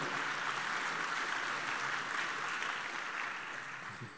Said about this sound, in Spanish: Si se lo va a dar, déselo al Señor, por favor, ese aplauso.